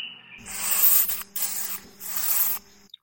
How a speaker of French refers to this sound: qui est le son d'une chauve-souris vampire, et sur votre dos, vous sentez le poids d'un petit animal qui vous saute dessus, puis marche jusqu'à trouver un endroit qui le satisfasse.